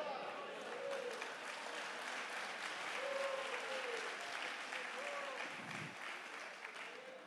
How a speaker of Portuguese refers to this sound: Glória a Deus por isso. Você pode dar um glória a Deus e aplaudir o Senhor?